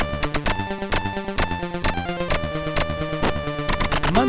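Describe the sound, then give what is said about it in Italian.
A Commodore 64 chiptune with buzzy square-wave tones over a steady beat of sharp percussion hits made with the Commodore's noise channel, with tracker and channel tricks simulating an echo on the lead voice, loud, playing alone without any voices. “Galway aggiunge una sezione ritmica sfruttando in maniera intelligente il canale noise del Commodore”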